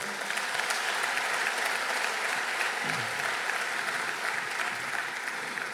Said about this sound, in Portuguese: E dê um aplauso bem forte ao Senhor.